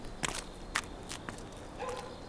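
A few footsteps on a hard floor as someone hangs up a public phone and walks into a supermarket, spaced unevenly, with a faint hum and a soft rustle near the end. No one speaks.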